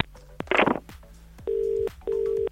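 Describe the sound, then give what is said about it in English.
A phone call being placed to call someone back about winning Bellator tickets: a few clicks and a short burst of dialing noise, then two steady ringing tones, each lasting under half a second, with a brief gap between them. No voices. “Yes, I'm going to call somebody back now. If it's private number, make sure you answer your phone.”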